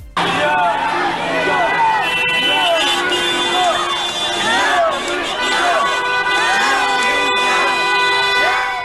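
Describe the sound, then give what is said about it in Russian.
A large protest crowd chants and shouts slogans together, including "I am Furgal" in support of Sergei Furgal, a dense wall of many voices that stays loud throughout, with no pauses or single speaker standing out. “Я Ямы фургал, кричат люди.”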